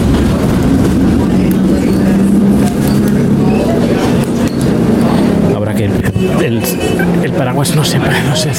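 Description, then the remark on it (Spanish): Steady rumble and rattle of a San Francisco streetcar ride heard from inside, with a low droning hum, bursts of clanking and clicks toward the end, and indistinct voices murmuring beneath. “Bueno, ahora estoy en el tranvía de San Francisco.”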